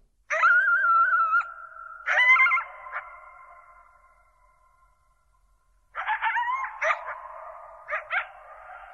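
A pack of coyotes howls and yips together, wavering high tones overlapping in two loud bursts separated by a quieter lull, clear with no voices.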